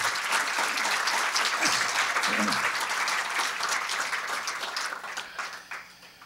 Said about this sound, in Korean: 이럴 때 박수 한번 쳐주셔도 괜찮습니다.